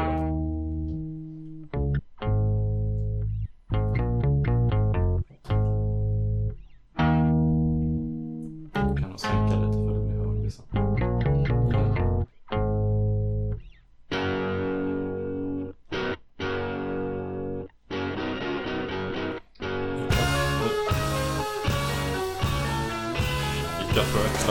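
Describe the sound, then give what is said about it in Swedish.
The first track of an album: an intricate, playful instrumental track with stop-start phrases and quick changes, buzzy distorted electronic tones over a heavy low end, turning brighter and denser toward the end; loud, no voices. “De är lite såhär lattjo uh, och lite... Det invecklad musik”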